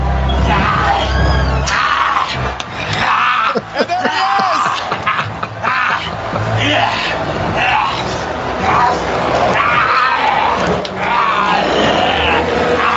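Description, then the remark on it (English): A large wrestling crowd at the Compact Center during Monday Night Raw roars and cheers wildly for the full stretch, a loud, dense wall of yelling and screaming with rising shouts and chant-like swells of "Gillberg" throughout. “Listen to the crowd going crazy for it.”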